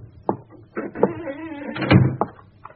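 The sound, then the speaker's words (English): The only door to a house, with a police seal across it, creaks open slowly with a long, wavering groan, framed by a few sharp knocks and clunks from the latch and frame, fairly loud, with no talking. “Well, this is apparently the only door to the house.”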